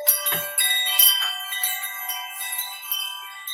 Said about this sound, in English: I have a Oh, wind chimes.